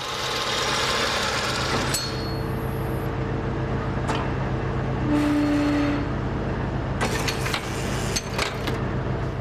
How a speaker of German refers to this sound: Schicht für Schicht frisst sich der Bohrer nach oben, dann muss nur noch der Dübel gesetzt werden.